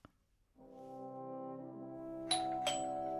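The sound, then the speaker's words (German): A doorbell rings with a sustained, ringing chime tone that swells and holds, with two sharp clicks near the end. No one speaks. “Jetzt klingelt es noch einmal”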